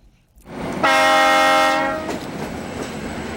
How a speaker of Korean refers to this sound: 네, 기차 소리입니다. 기차 소리.